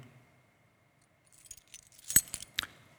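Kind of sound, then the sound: household object, bunch of keys jangling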